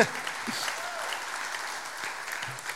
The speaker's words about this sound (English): I've never had y'all clap. Let's just keep that up. Let's keep that up.